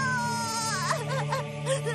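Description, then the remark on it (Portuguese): A boy cries and sobs, his voice rising and falling in shaky, wavering wails over a steady low drone in the background; a scene in which Luffy cries after Shanks loses his arm. “Ei, por que está chorando?”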